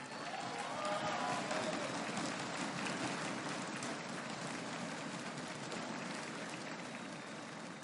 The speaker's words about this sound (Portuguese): Nós agradecemos com muito amor e com muito carinho a todas vocês, uma grande salva de palmas para vocês também.